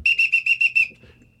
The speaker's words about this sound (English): you're really gonna blow that whistle like that? That's fucked up. I mean, Yeah. that is fucked up.